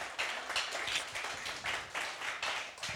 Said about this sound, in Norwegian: Skal vi gi en applaus?